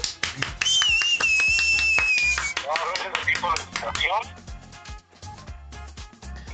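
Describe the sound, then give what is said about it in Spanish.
A few people clap their hands in quick, uneven, loud bursts of applause for two guests, while voices chatter and exclaim over it. “No me resta más que agradecerles, mandarles un aplauso”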